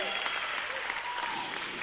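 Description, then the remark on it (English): A church audience applauding steadily for an 18-year-old young woman, a dense wash of many hands clapping at once, fairly loud and continuous for the whole short stretch with no clear individual claps standing out. “Clap for her.”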